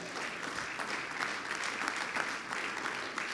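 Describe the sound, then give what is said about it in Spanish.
Steady applause from a church audience giving a loud round of applause to the Lord, a dense, even wash of many hands clapping at once with no talking, holding at a moderate level throughout. “Eso merece que le dé un fuerte aplauso al Señor.”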